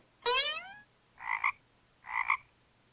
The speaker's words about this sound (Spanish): Cuando Laura estaba echando su cereal en un plato, una ranita saltó de la caja.